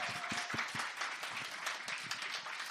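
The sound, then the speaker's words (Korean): Steady audience applause thanking sponsors who donated gift sets, a dense patter of many hands clapping at once, moderately loud and unbroken, with no voices standing out above it. “박수 한번 좀 감사합니다.”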